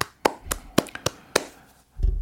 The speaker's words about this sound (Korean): 우상자 미자 쓰시는 우상미님의 46번째 탄신일 진심으로 축하드립니다. 박수 한번 주시고요.